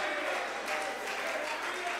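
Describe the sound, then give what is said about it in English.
An audience claps hands in praise of God in a steady, dense wash of applause, sustained evenly throughout with faint voices mingled underneath. “So clap your hands, all ye people.”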